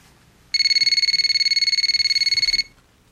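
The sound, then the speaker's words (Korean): A telephone rings once with an incoming call on a Monday afternoon, a fast, high-pitched electronic trill, a warbling burst lasting about two seconds, loud against a quiet background with no one talking. “실망감에 영 풀이 죽어 있던 월요일 오후, 마침내 그에게서 전화가 왔습니다.”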